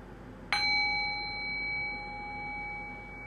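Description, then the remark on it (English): A single bell strike rings out with a bright metallic onset, then a clear sustained tone lingers and slowly fades over several seconds, with no talking. “Now ring the sound of the bell one more time.”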